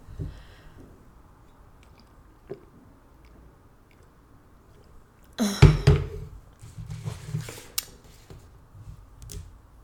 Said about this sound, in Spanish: Voy a tomar agua.